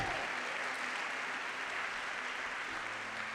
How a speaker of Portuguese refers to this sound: Recebe em nome de Jesus e aplauda Jesus. Coragem!